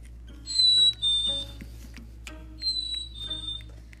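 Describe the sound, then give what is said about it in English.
A squeaky toy bird named Tweety Tweet is held and squeezed twice, each press giving a shrill, whistly squeak, with a short pause between them and no talking. “Let me just squeak him.”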